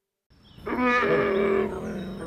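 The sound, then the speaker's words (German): A bear roars once, loud, a deep rasping bellow that swells and holds for about a second before trailing off into a low rumble. No voices. “Er ist wieder da, der wilde Bär.”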